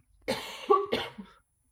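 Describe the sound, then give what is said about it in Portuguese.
A short fit of coughing, two or three rough, breathy hacks in quick succession, slightly muffled as if turned away from the microphone, with no talking. “Fogo, eu afastei o microfone e tu deste atenção à minha tosse.”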